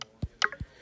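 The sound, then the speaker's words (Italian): A quick series of short, soft navigation clicks from an iPhone's VoiceOver screen reader with its speech turned off, as the user swipes left or right, about five in under a second, some with a dull low thump and one with a brief tonal blip, with no voice. “si sentono soltanto i click senza eh, voice over che parla.”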